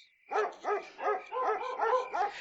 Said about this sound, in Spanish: Destrabó difícilmente los dedos con que su hijo había venido sosteniéndole de su cuello, y al quedar libre, oyó como por todas partes ladraban los perros.